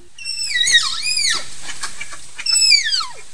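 Two shrill, high-pitched whistles, each sweeping downward and wavering as it falls, loud with a short pause between them; a tapir's characteristic whistling call, with no voices.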